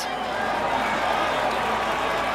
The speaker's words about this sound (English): The crowd screams.